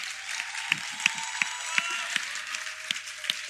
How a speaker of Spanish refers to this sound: Un aplauso